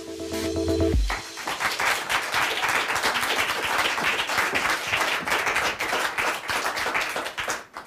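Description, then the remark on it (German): A short musical tone gives way to restrained audience applause at a reading: many hands clapping steadily and evenly for several seconds, moderately loud, with no voices over it. “Das Klatschen wir auch so ein bisschen verhalten.”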